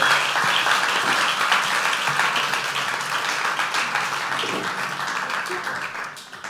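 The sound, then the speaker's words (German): Sustained applause from a crowd thanking a woman for openly sharing her heart, a dense, steady wash of many hands clapping that holds at a fairly loud level for several seconds before starting to taper off at the end. “Geben wir doch nochmal einen riesen Applaus.”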